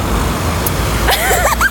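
Steady low rumble of road traffic with cars moving past, a continuous engine and tire drone, joined near the end by faint higher-pitched sounds over the noise.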